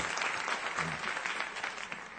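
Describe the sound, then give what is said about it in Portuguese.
Sustained audience applause at a church gathering welcoming a guest speaker, a dense steady patter of many hands clapping at even loudness for a couple of seconds, with no clear voices standing out. “Vamos recebê-lo com uma salva de palmas, é possível?”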